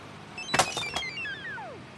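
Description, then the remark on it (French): A mobile phone ringtone plays on its own for an incoming call: a couple of sharp clattering bursts, then bright electronic tones that glide downward in pitch, fairly loud with no one talking. “Tiens, qui m'appelle”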